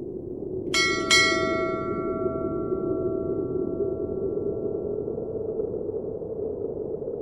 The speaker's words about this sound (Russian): Унылый звон цинги, куска рельса, подвешенного на углу лагерной вахты, слабо донесся сквозь бревенчатые стены барака и толстый слой льда на его оконцах.